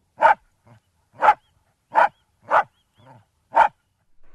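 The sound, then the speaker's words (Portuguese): A dog barks sharply, about five loud barks spaced unevenly over a few seconds, with a couple of softer, low grunting sounds between them and no talking. The dog is Pickles, a four-year-old dog. “Nomes ímpares do futebol como Eusébio, Pelé, Beckenbauer, Yashin ou Bobby Moore puderam competir em Inglaterra graças a um cão.”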